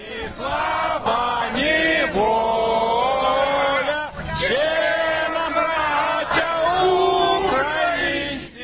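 A large crowd of unarmed protesters sings the national anthem together loudly outdoors, many voices holding long, wavering notes in unison with brief pauses between phrases, mixed with shouting at the invading army to go home.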